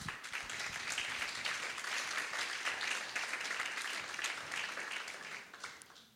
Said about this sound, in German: Gib ihm einen Applaus.